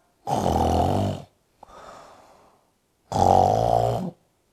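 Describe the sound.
A person mimics a pig with two loud, rough, buzzing snorts about a second each, separated by a softer breathy wheeze, like exaggerated snoring.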